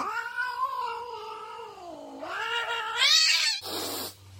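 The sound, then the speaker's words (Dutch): A house cat mating lets out a long, loud, wavering yowl that rises into a shrill screech, followed by a harsh hissing burst, with no voices present. “Nou ja, dat doen onze huiskatten ook als ze paren, hoor.”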